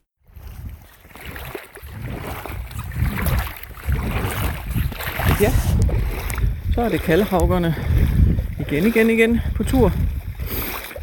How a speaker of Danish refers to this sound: Og øh, det man kan høre lyden af her, det er, det er lyden af Kattegat omkring mine vaders.